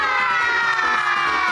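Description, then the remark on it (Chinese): A group of children playing an animal-transformation game let out one loud, sustained shout together, roaring fiercely in imitation of a tiger; the raised voices hold steady for over a second without a break. “好，现在来动物变变变，一起来变老虎，发出凶猛的声音。”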